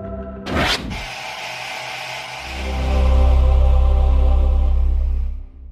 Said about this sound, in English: That sound was originally designed to transport people from run of the mill television into something truly special. The problem was that both the sound and the animation were based on analog TV static, which is something we almost never see nowadays